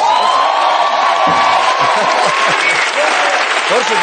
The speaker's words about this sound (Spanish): Lo mejor de todo, bueno, también parte de lo bueno, es que este señor, y pido un aplauso, me ha traído, porque es de Burgos, unas morcillas de Burgos.